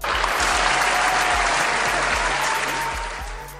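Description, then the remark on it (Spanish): Steady, loud applause from many hands, a dense continuous clatter that holds for several seconds before tapering slightly at the end, with no voices over it. “Venga ese aplauso por favor.”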